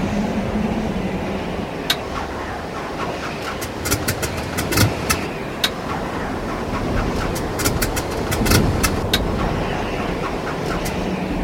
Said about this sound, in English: Start that engine again.